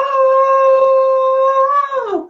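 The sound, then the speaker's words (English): A single voice imitates the wailing electric cello theme shared by the films Wonder Woman and Thor, holding one loud, steady, sustained note for about two seconds before the pitch slides downward and cuts off. No other sounds accompany it. “which is the sound that's made by electric uh, cello.”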